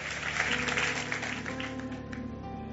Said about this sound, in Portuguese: Aplauda Ele, louvado seja o seu nome.